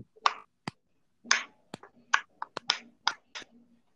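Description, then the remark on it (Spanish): A quick, irregular series of sharp cracks and pops as a person cracks their own bones, about a dozen snaps in a few seconds, some crisp and bright, others duller, with no talking. “Si escuchas eso, estos son es porque son mis huesos que son mis huesos, huesos que me los.”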